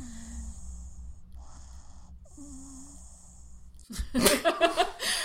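A dog lying down snores in three long, hissing, wheezy breaths over a low hum, fairly quiet, before a burst of human laughter at the dog breaks in near the end.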